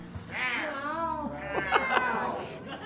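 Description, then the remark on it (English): Several people imitate cat meows at once, overlapping drawn-out mewing calls that rise and fall in pitch, fairly loud, with a few sharper yowls near the end. “Um, are there any cats?”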